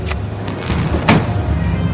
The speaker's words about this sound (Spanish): Él abre la puerta del taxi y la mujer entra.